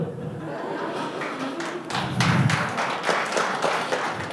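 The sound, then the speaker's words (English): A crowd claps in a steady, irregular patter that builds after a second and continues throughout, with faint murmuring voices underneath. It is the women at the back of the audience applauding during a pastor's sermon. “All the women in the back clapping, elbowing their husband.”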